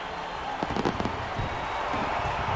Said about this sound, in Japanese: 花火が上がりダグアウトの選手は全員拍手をしている